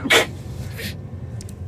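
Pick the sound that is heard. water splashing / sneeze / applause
sneeze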